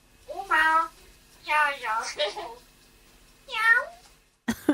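A hill myna (Beo) imitates a cat's meow, giving three clear, drawn-out meows with short pauses between them, followed by a brief sharp noise at the end.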